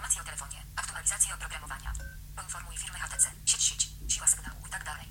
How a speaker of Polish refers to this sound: W przypadku HTC słyszymy tylko i wyłącznie, że przemieszcza się kursor, niemniej jednak co się pod tym kursorem znajduje, nie wiadomo.